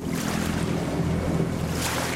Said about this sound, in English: Our small white research vessel pitches across the channel that divides the two islands of Helgoland.